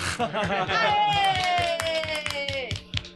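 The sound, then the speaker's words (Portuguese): A canned applause sound effect played from a button on a table: a steady burst of rapid, rhythmic clapping with cheering and a long descending whistle-like tone over it, ending after about three seconds. “Isso aí, palmas pro Gal.”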